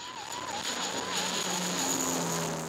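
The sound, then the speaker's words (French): A propeller-driven Canadair water-bomber aircraft of the French civil security fleet, based at Nîmes in the Gard, drones steadily, its engine hum wavering slightly in pitch over a constant, moderately loud roar with no voices present. “En plus des 12 qu'elle possède déjà, la France a annoncé l'achat de 4 Canadaires supplémentaires, dont 2 financés par l'Union européenne.”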